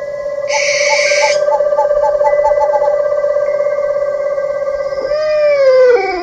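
An owl's drawn-out hooting call rings steadily and loudly with a faint pulsing, then bends downward in a wavering, mournful glide near the end. No one speaks.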